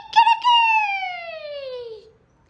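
A rooster crows loudly: a couple of quick opening notes, then one long, drawn-out cry that slowly slides downward in pitch for about two seconds before cutting off.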